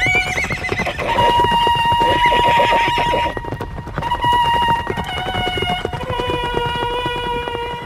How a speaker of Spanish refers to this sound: Estas trompetas militares que escuchamos de fondo pertenecen al tesoro de Tutankamón fueron eh, parte de ese ajuar funerario descubierto por Howard Carter en el año 1922 y pertenece el sonido a una grabación del año 1939 realizada por la BBC